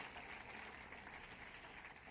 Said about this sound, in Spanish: ¿Cuántos le dan un aplauso al Señor por eso? Amén.